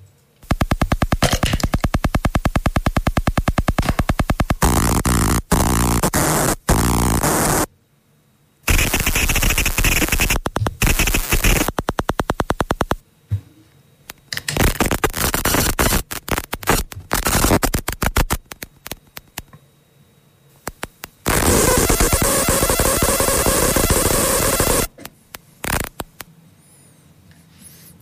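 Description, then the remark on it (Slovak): Wi-Fi radio signals at 2.4 GHz from a Wi-Fi end device behind a router, turned into sound: loud, harsh bursts of rapid ticking and crackling static, like machine-gun rattle, broken by short silences, with a steadier hissing stretch near the end. “signál z Wi-Fi routera, prvý signál bude, potom z toho Wi-Fi koncového zariadenia, ktoré je za ním, tieto dva budú na 2,4 GHz a potom budú ďalšie dva zvuky rovnaké, ale budú na tých 5 GHz, kde sú teda tie rýchlosti o mnoho väčšie, o mnoho vyššie.”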